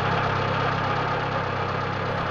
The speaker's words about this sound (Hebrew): לפתע הבחנו במשאית גדולה העולה מתוך הפרדסים בנסיעה מהירה מולנו.